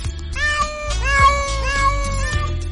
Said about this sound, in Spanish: Oye, oye, oye, ya me has traído, te habías venido con dos nada más, ¿de dónde han salido todos esos gatos? me encantan los gatos.